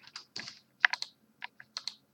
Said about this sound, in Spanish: Ah, es verdad, era mi turno. Bueno, pues tiraré dados